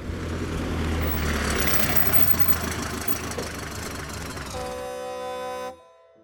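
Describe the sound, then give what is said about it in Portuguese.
A truck pulls up and stops in front of two people on a dark road; its loud engine rumbles steadily, settling into a droning idle with a few tonal whines near the end before cutting off abruptly. No one speaks. “E em meio ao breu da estrada, um caminhão para em frente aos dois.”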